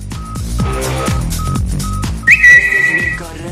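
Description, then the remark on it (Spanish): A short, loud Spanish radio intro jingle for a segment about life on Twitter, with a steady pulsing bass beat and layered synth tones, topped by a bright, sustained whistle-like note near the end. No one speaks. “Vamos con la careta.”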